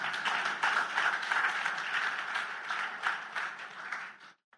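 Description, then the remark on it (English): An audience claps steadily for about four seconds, a dense, even patter of many hands that holds its level before stopping abruptly; no one speaks over it. “If you're clapping, clap. Feel free and clap.”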